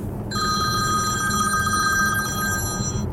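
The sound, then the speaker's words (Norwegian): A telephone rings with a steady, trilling electronic bell tone that starts just after the beginning and continues for about three seconds over a low background rumble, with no talking. “Sorry for den. Ny kunde.”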